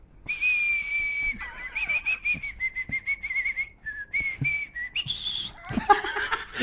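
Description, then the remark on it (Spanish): A person whistles a simple tune, holding long steady notes with a few short breaks and pitch changes, ending in a burst of noisy sound and faint laughter. “que él la chifle.”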